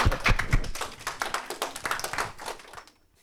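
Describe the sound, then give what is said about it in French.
Audience clapping: a dense, steady patter of many hands, fairly loud and sustained for about three seconds before fading out quickly. No one speaks over it. “Félicitations, merci, bravo, on s'applaudit, on s'applaudit.”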